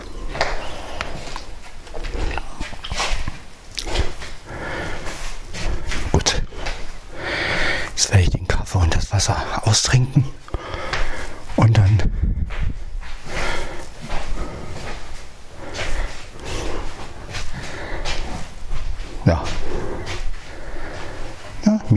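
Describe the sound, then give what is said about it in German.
Dogs, including Mia and Mona, eat noisily, with wet chewing, slurping and repeated snorts in a steady, busy stream, while a person talks quietly at intervals over the sounds. “Kann Mia noch ein bisschen fressen.”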